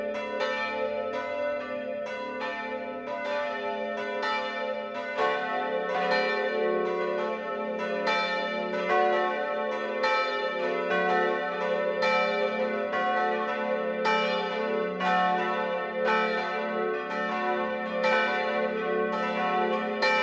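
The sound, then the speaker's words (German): Several church bells of the Catholic parish church St. Johannes der Täufer in Obertulba, Lower Franconia, ring together in the 12 o'clock noon peal, their overlapping strikes forming a dense, continuous wash of bright, resonant tones with steady loudness throughout and no voices. “Das Mittagsläuten kommt heute von der katholischen Pfarrkirche St. Johannes der Täufer im unterfränkischen Obertulba.”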